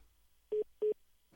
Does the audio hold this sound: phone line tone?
yes